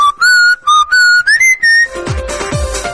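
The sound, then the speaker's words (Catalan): A bright whistled melody, the theme of the TV series Verano azul, plays as background music in short phrases, rising slightly in pitch, then gives way to a fuller burst of instrumental music with thumping beats for the final second. “És la fotografia de portada amb l'alcaldessa i els regidors al darrere amb la bicicleta, amb aquesta bicicleta groga, amb el cistellet i sona de música de fons, verano azul.”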